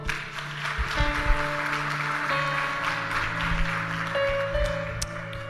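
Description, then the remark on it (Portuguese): An audience claps steadily throughout, a dense, loud wash of hand claps, with sustained keyboard-like chords holding underneath. “Uma salva de palmas.”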